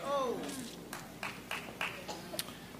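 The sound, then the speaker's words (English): A handful of scattered, sharp claps, irregularly spaced and fairly soft, follow a voice that trails off at the start; an isolated clap from a listener at the back of a church rather than full applause. “Thank you for that clap in the back.”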